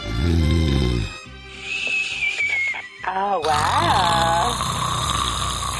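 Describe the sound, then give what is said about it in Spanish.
A voice imitates a loud, rasping snore for about a second, then comical whistling and wheezing noises follow, with playful vocal sounds layered throughout. “Ronque, Despiértate, que estás ronque y ronque.”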